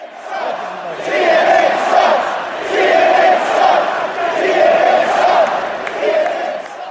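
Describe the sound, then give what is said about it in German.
A rally crowd chants in unison, a rhythmic, repeating cadence of massed voices rising and falling in waves at a steady loud level, with no single voice standing out. “Es ist immer das gleiche Skandieren.”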